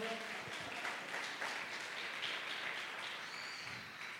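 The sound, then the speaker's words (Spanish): A crowd breaks into loud, sustained applause for the creatives, a dense steady clatter of many hands clapping at once that holds strong for several seconds before easing slightly at the end. “un aplauso bien fuerte para los creativos.”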